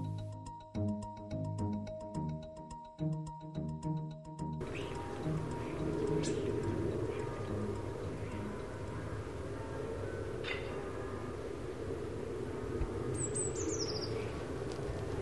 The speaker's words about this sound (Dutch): Ja, het slechts een paar aantal vogels.